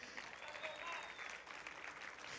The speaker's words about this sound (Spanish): Daré un fuerte aplauso a Jeffrey.